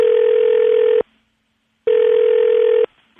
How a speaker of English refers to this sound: Let's call her daughter right quick, see if we can get her on the phone.